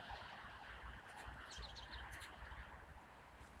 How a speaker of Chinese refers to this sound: 嗯，很多的声音里面最细的那个就是金翅雀的声音。嗯，它也落在地上去吃东西。